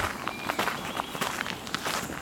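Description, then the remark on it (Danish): Steady footsteps crunch along at a walking pace in a forest, about three steps per second, each a soft, brief rustle over a low, constant background hiss, with no voices. “Jeg er i dag taget en tur i skoven for at se, om jeg skulle kunne få øje på en spætte eller to.”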